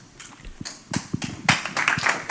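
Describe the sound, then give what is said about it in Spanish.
Audience applause at a Spanish Basketball Federation event hosted at Moderna's facilities, ahead of the squad list for EuroBasket 2025 qualification. It begins as a few scattered claps and quickly swells into dense, steady clapping from a crowd, moderately loud, with no voices over it. “El aplauso fundamental.”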